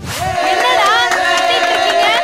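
Excited voices shout from the house next door, loud, high-pitched and wavering, like a small crowd cheering and chanting "Dhoni, Dhoni" together for about two seconds with no pause.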